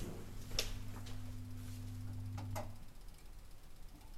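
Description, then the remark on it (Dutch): A few faint, sharp ticks from a clock, unevenly spaced over a low, steady electrical hum, with no one speaking. “Ik hoor een getik, hoor je dat? Dat moet je wel horen. Ik denk dat het mijn klok is”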